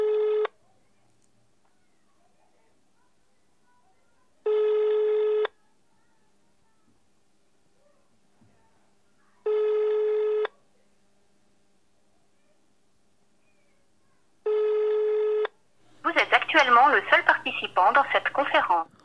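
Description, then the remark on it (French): Four evenly spaced telephone keypad tones, dialing a conference number, each lasting about a second with a few seconds of silence between them. Then a voice speaks briefly over a low hum. “Veuillez entrer le numéro de la conférence suivi du dièse.”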